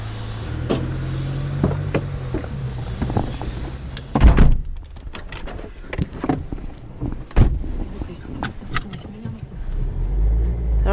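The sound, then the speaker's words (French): Inside the car of a home care assistant driving to a client's home in Salle-Courbatier, a low engine rumble hums steadily while sharp clicks and thumps, like a door or seatbelt, break in, and faint voices murmur in the background. “on vient de monter dans votre voiture, vous nous emmenez chez Simone pour un service d'art à domicile.”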